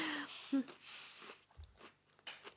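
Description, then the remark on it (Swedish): Chewing and crunching of cake, with moist mouth clicks and a few soft bites over a couple of seconds, heard alone without talk. “jag skulle inte börja prata med dig medan du tuggar på din kaka.”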